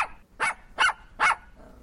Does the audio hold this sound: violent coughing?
no